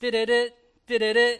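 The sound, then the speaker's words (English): A single loud voice sings a brief sports-broadcast theme jingle: two punchy three-note phrases separated by a short pause, mimicking the familiar TV fanfare. “Many of you know what that sound is. It's a sound of ESPN.”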